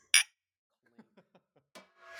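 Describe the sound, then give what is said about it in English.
A sharp glassy clink rings out as glasses are clinked in a toast, followed by a few light, softer taps and one more clink, then a rising background hiss; in Vancouver on a sunny day. “Oh, can I get a cheers?”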